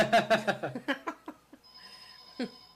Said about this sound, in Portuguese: Ó, o telefone oh, tá tocando.